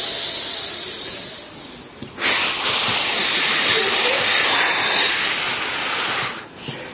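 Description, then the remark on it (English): A voice demonstrates the deep rhythmic breathing exercises shown to pregnant women, done while in pain: a long airy inhale, a brief pause, then a loud, steady, hissing exhale lasting about four seconds, followed by the start of another breath. “And I was doing those deep breathing exercises that they show pregnant ladies to do.”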